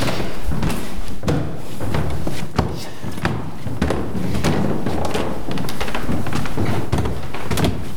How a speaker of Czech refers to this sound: No a společně vystoupáme po dřevěném schodišti eh, nahoru do patra, kde už jsou soukromé pokoje rodiny.